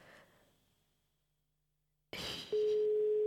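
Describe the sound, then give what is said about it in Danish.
After a near-silent pause, a burst of line hiss gives way to a loud, steady electronic phone tone, like an outgoing call starting to ring. No one speaks over it. “Der er en, der hedder Abdi, ham synes jeg, vi skal prøve at ringe til.”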